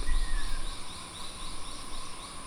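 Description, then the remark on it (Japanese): A busy dawn chorus of birds along a river with mangroves, heard while canoeing upstream at daybreak, with steady high-pitched trills and a quick run of repeated chirps over a low, soft rumble. No one speaks. “するとそれと入れ替わるようにカエルの鳴き声がスーッと消えていき気がつくと鳥たちの朝のさえずりがにぎやかに響いている。”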